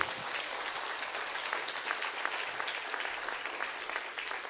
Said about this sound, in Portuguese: Aplaude a Deus, aplaude.